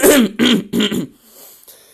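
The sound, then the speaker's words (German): Three quick, gravelly throat clearings in a row, fairly loud, caused by Tourette syndrome, followed by a short quiet stretch with faint breathy noise. “äh, und für Leute, die sich jetzt wundern, warum ich die ganze Zeit mich räusper, das wissen auch sehr viele noch nicht auf Onbit Arcade.”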